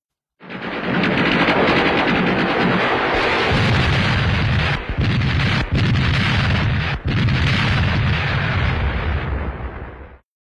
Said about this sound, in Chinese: 终于有一天，远处的炮声阵阵响起，原来是人民解放军向大西南进军了。